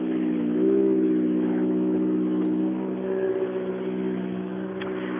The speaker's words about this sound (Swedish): Eh, tätt efter dem så är nästa bil också, så att eh, det rullar på som sagt här för tillfället.